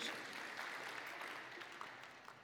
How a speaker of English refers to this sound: You can applaud.